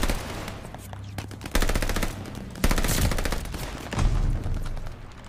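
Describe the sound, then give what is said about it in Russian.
Rapid automatic gunfire from a gun in a video game, dense bursts of rattling shots with a few loud heavier blasts, punchy, with no talking. “Блин, вот эта пушка, я не знаю, что это за такое, но это прям супер.”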